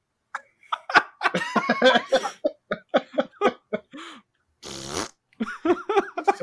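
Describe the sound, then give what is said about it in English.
A voice imitates a serrated fart: a loud, buzzy rasp made of rapid clicking pulses like a zipper, set among choppy vocal bursts and giggly sounds. “A serrated fart.”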